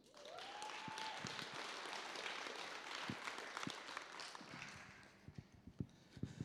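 An audience breaks into steady applause for several seconds, then it thins out into a handful of scattered, sharp claps before fading.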